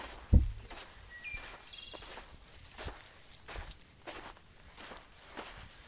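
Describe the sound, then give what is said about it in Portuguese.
Footsteps walk along at a steady, unhurried pace, each step a soft crunch, opening with one sharper thud and continuing evenly for several seconds. No voices are heard. “E, e vocês caminham até mais ou menos umas 9, 10 horas da manhã, aonde vocês chegam é, no local onde a lâmina tinha mostrado.”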